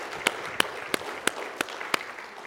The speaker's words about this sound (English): Come on and give him a hand clap of praise this day.